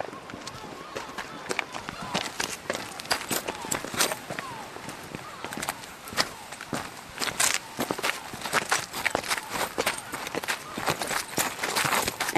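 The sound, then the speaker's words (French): Steady footsteps crunch along a rough, gravelly island trail, the path to the lighthouse, as a group walks with coast guard guides, a brisk continuous rhythm of crisp steps lasting throughout. “Ça fait à peine 5 minutes qu'on vient commencer à marcher.”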